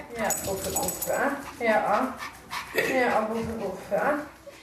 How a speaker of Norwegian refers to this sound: I en hundebarnehage på Majorstua i Oslo løper bitte små hunder rundt i en inngjerdet bås malt i friske farger.